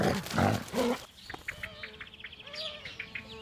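A wolf gives a short, loud, rough growl lasting about a second, then falls silent while birds chirp and tweet softly in the background.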